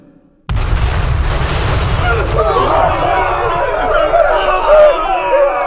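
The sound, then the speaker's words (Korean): A sudden heavy boom of cannon fired to break a city gate erupts after a brief quiet, followed by sustained rumbling blasts and a noisy clamor of many voices shouting, as Korean and Chinese troops advance on the rebuilt fortress of Sacheon. “대포를 쏘아 성문을 부수어라!”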